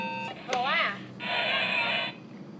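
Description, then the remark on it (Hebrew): A voice mimics a harsh electric buzzer: a short wavering vocal hum, then a sustained, raspy, nasal drone about a second long, fairly loud. “איזה זמזום גרוע.”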